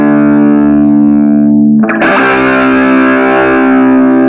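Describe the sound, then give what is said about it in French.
A distorted electric guitar played through a tiny Marshall MS4 double stack amp, about 15 cm tall: a sustained buzzing chord, then a harder strum around two seconds that rings out loud and gritty with no talking. “Excellent le petit Marshall MS4, euh, ah, double, ampli, le double stack Marshall, 38 euros”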